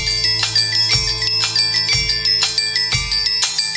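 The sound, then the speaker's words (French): A cover tune recorded only with bells, chimes, sleigh bells, Tibetan bowls and xylophones: bright ringing metallic tones with long sustains, low bell strikes landing roughly once a second beneath quicker high chiming notes, steady and fairly loud, no voices. “enregistré rien qu'avec des cloches. Des cloches, des clochettes, des grelots, des bols tibétains, des xylophones joués, c'est ravissant, non”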